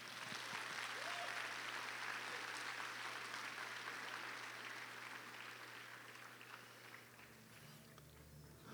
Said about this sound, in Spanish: Bien fuerte ese aplauso al Señor en esta tarde.